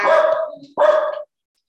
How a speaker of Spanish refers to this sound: Ya tus perros dicen, no, a esos no vamos a ir a ver